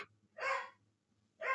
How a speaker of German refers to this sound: Ähm, übrigens, wer das hört, das ist mein Hund, der ist heute irgendwie ein bisschen unausgelastet, aber das gehört manchmal auch dazu.